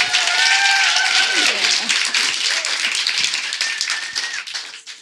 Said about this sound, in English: Please give her a round of applause, everybody.